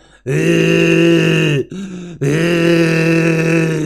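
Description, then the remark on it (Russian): A person vocally imitates the retching of a vomiting gag reflex: two long, strained, harsh gagging sounds from the throat, loud, separated by a brief catch of breath, with no words spoken. “у тебя хлещет вот эта рвота, из, ну не хлещет, а течет э, вот эта, э, как ее называют, а, желчь, она все горло рвет, у тебя рвотный рефлекс со звуком еще такой”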